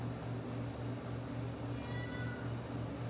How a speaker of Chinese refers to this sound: 有一只猫叫咪咪，在旁边一直叫